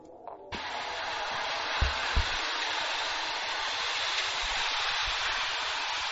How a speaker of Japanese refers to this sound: 雨か